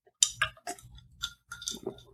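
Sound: sipping iced tea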